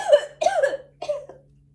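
A person coughs three times in quick succession, close and fairly loud, the last cough shorter and weaker, with a faint low hum underneath.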